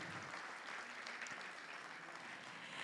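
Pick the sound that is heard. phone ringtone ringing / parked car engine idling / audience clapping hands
audience clapping hands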